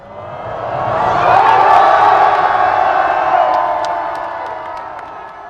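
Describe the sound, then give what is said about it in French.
A large, tightly packed crowd cheers and shouts outdoors on the Champs-Élysées avenue on a hot, sunny day, amid blue, white and red smoke flares, a dense roar of many voices swelling to a peak midway before easing slightly, with scattered whoops rising above the din. “Mais je garde en mémoire la liesse, les fumigènes bleu, blanc, rouge, la patrouille de France qui surgit au-dessus de nos têtes, les yeux plissés pour regarder vers le soleil, les corps serrés, la chaleur, la sueur, la clameur de la foule.”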